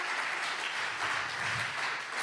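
An audience applauds steadily, a dense wash of many hands clapping at an even level throughout, with no voices heard.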